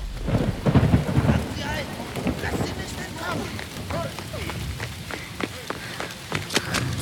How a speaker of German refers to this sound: Doch die Regentropfen, die vom dunklen Himmel prasselten